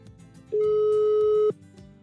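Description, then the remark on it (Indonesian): A single steady telephone ringback tone of an outgoing call sounds for about a second, loud, starting and stopping abruptly, with faint background noise before and after. “Oke, okay, kita langsung telepon.”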